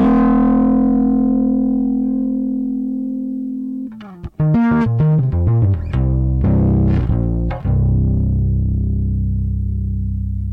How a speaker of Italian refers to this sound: E qui la sensazione che ho io adesso è tipo da ampli di più. Mm-hmm. Eh, e naturalmente la cosa bella è che qui arrivo sul punto... La, il punto dove il suono... Eh, va in overdrive.